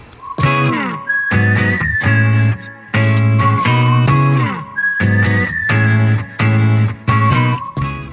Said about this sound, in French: Ah oui, j'aime beaucoup, euh, j'aime beaucoup les siffles au départ. C'est évident, c'est évident.